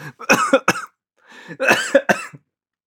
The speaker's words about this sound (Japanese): むせた。